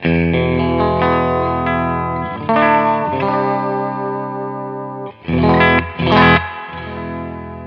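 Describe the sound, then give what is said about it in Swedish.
A Jetstream 390 electric guitar plays sustained chords drenched in reverb, with a shimmering effects-laden tone; a couple of brighter strummed swells stand out near the end. No one speaks. “Härligt reverb.”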